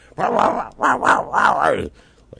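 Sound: dog growling and barking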